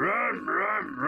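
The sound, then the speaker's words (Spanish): A voice mimics the engine of a Cadillac Escalade V Series luxury SUV revving, a loud, continuous throaty hum whose pitch swoops up and down in about three surges, with no other sounds. “miren, este es el sonido de la Cadillac Escalade V Series, te subes y le haces”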